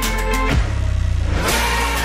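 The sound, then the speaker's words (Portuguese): A car engine revs up loud, its pitch sweeping down into a deep, pulsing rumble for about a second before settling back to a steady hum. “É, aquele carro ainda vai levar a gente muito longe.”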